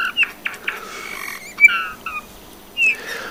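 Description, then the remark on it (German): Soft, creaky bullfinch song: a quiet, halting run of short piping whistles and scratchy notes with gaps between, ending in a slightly louder whistled phrase, no voices present. “wenn sie im Frühjahr mit der Brut beschäftigt sind, also so ab April, ähm, nicht mehr singen, dann sind es nur noch die Männchen”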